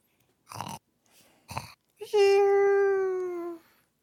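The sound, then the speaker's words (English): A dog snoring in an almost cartoonish way: two short, raspy snorts, then a long, loud whistling tone that slowly drops in pitch before fading out. No one talks. “He his cartoon snoring.”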